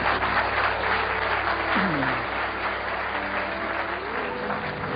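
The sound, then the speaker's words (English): An audience applauds loudly and steadily for the full stretch, a dense wash of clapping with a murmur of voices mixed underneath. “Could I just calm the audience?”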